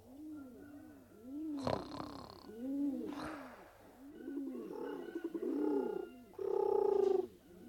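Pigeons coo in a steady, repeating pattern of soft, low, rolling calls, several birds overlapping, with a few brighter, louder bursts mixed in. No one speaks.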